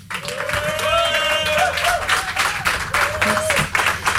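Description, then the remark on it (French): Steady audience applause from a small crowd for a live band, many hands clapping at once, fairly loud, with a few voices whooping and calling out over the clapping throughout. “Le groupe, c'est …, vous pouvez les applaudir”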